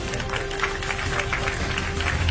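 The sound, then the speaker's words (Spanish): A live audience applauds steadily, a dense wash of many hands clapping at an even level throughout, with no voices standing out above it. “Es menos tiempo de mí mientras que ustedes aplauden.”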